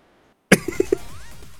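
A sudden, sharp cough followed quickly by three short, smaller coughs in a rapid burst, then fading out. No one speaks.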